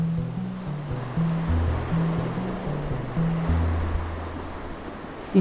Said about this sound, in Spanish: El agua está fría, las olas rugen.